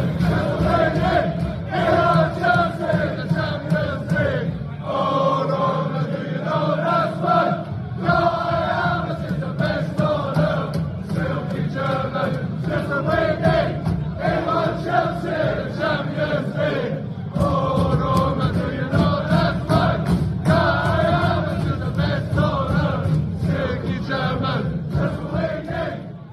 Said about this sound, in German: Und äh, deswegen hören wir hier mal rein in einen Fangesang, den die Chelsea-Fans äh, Kai Havertz schon gedichtet haben.